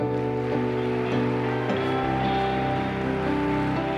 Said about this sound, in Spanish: Apláudele a Jesús. Yo creo que puedes aplaudir más fuerte.